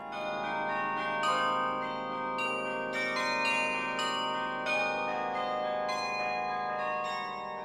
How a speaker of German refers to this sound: dass das voll mechanisch ist, bewegt sich parallel zu meinem Tastendruck auch der Klöppel oben in der Glocke